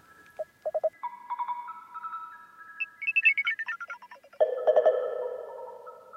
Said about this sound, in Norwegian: Og mm, pausesignal til NRK er for øvrig laget der en dag som teknikeren rett og slett måtte til tannlegen. Så fikk, hadde jeg to timer fri i studio, og der laget jeg det.